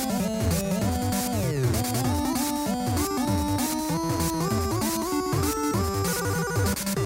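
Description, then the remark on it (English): A bouncy Christmas tune in the style of Mario and Sonic the Hedgehog video games, with bright, buzzy synth melodies stepping quickly over a steady bass line, playing loud and continuously with no voices. “So if Sonic the Hedgehog and Mario got together and celebrated Christmas, I think it would sound something like this.”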